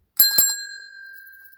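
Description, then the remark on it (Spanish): A doorbell rings with two quick, bright metallic strikes, its clear ringing tone lingering and slowly fading afterward. Fairly loud, with no voices. “Timbre.”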